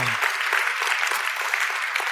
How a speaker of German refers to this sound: Der Applaus wäre eigentlich jetzt, müsste grösser sein für Gott, weil, ähm, wir haben vorhin für Gott applaudiert, das war weniger laut gewesen. Wir geben jetzt nochmal Gott einen richtig grossen Applaus, bitte. Kommt. Ja, genau, richtig.